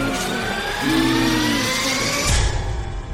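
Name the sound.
car engine revving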